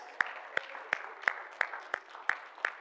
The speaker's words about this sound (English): Cue the wolf. and give them a round of applause.